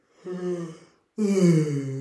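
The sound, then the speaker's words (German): A person yawns, first a breathy voiced stretch, then after a short pause a louder, drawn-out groaning yawn that slowly falls in pitch. “Warum gähnen Menschen, wenn man anderen Menschen beim Gähnen...”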